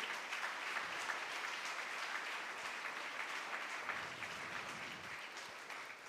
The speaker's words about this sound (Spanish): Si usted lo cree, aplaudo al Señor. Si lo cree.